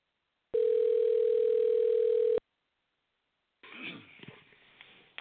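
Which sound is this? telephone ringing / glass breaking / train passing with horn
telephone ringing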